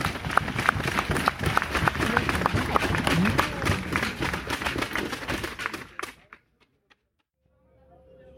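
Dense crowd applause with many overlapping claps, loud and sustained for about six seconds, then fading quickly into near silence with a faint low hum at the end. The audience applauds a competitor chosen by the jury.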